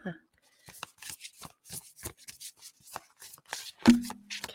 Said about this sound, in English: You have to forgive me. It's going to be quite loud as I'm shuffling this deck, I find.